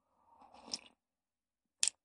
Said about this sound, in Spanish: Entonces, bueno, eh, en lo que sigues preparándote tu café, yo le doy otro traguito.